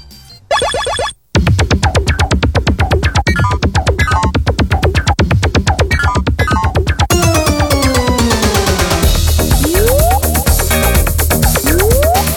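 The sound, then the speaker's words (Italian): Opening of the Italian theme song of the Sonic cartoon series: loud, busy instrumental music with rapid rhythmic hits, zany boing-like effects and quick rising and falling whistles, no singing yet. “in Italia arrivò proprio la serie dedicata a Sonic e ci ascoltiamo anche questa sigla”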